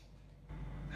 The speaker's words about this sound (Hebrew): אני נושם לאט, זה מה שאני עושה. כשאני נושם ברמה שאני בדרך כלל ב-level הזה הייתי כבר נושף החוצה, אני לוקח, מגניב עוד נשימה. הנה עוד פעם אני אעשה את זה.